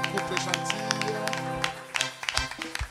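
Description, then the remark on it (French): A church audience applauds the couples with brisk, irregular clapping while voices cheer and call out over a sustained tonal backdrop, the claps crowding together toward the end. “Nous acclamons pour les couples gentils.”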